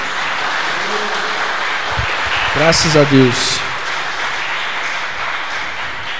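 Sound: audience applauding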